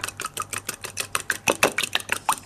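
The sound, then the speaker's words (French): An egg is beaten briskly with a fork against a bowl, a fast, steady run of light clicking taps, clear, with no talking over it. “Vous avez cassé euh, l'œuf que vous battez.”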